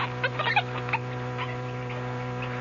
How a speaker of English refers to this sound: Those Capuchin monkeys. They want to imitate every new thing they see.